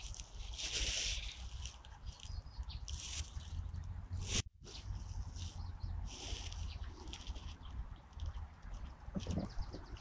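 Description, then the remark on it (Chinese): Parrotbills give high, thin chattering calls in scattered bursts among bamboo, over a steady rustling, scratchy background with a brief gap midway; no one speaks. “你听，就有他们的声音，中头鸦雀的声音。”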